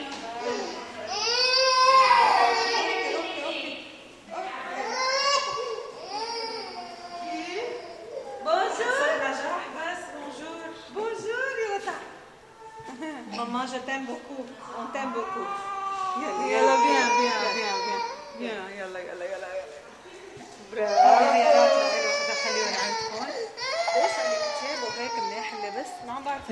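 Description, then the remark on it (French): Several young children at a daycare drop-off, separated from their parents for the day, crying and wailing almost continuously, their high, rising sobs overlapping in bursts with brief pauses, fairly loud, with some fussy babbling mixed in. “Et comme partout dans le monde, la séparation entre le bébé et ses parents n'est pas facile.”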